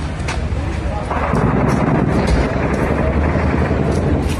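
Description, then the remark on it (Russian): Rapid bursts of automatic rifle fire crackle through a dense, rumbling wash of outdoor noise in Stepanakert, Nagorno-Karabakh, with indistinct voices murmuring underneath. “опубликовал видеозапись, на которой слышны автоматные очереди.”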